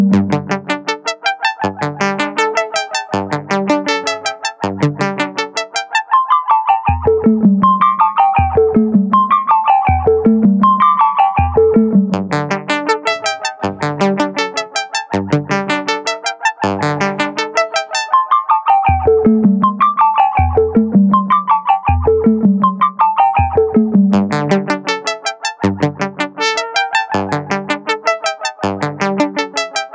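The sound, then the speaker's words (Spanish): A synthesizer patch called 'cadenas de secuencias' (sequence chains), the patch of the week made by Pablo Mendía, plays looping sequenced patterns of short, rhythmic notes, with bright buzzy phrases alternating against lower, rounder ones. Steady and loud throughout, with no voices. “Eh, se llama el parche de las cadenas de secuencias.”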